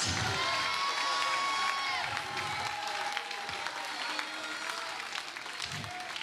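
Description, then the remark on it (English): A church audience at Glad Tidings shouts and cheers in praise to God, a dense roar of many voices with high whoops and sustained cries rising above it, plus scattered clapping, staying loud and unbroken throughout. “I dare somebody right now just take 10 seconds and give God a crazy praise that you've got whatever you need to fight any giant that comes your way.”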